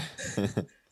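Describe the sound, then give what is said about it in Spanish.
A fairly loud sneeze, a quick breathy intake and voiced burst followed by a sharp burst of noise, with another short vocal sound starting right at the end. “Salud.”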